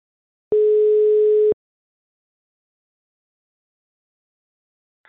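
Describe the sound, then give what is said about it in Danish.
A single steady telephone ringing tone of an outgoing call, placed live on radio to a football club's board chairman, sounds for about a second, then a long silence follows as the line waits, with the next ring just starting at the very end. “Ham ringer vi til nu.”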